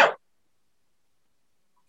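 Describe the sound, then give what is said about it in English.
A single short, sharp cough bursts out at the very start, followed by near silence. “hey, sorry all, cough it's all good”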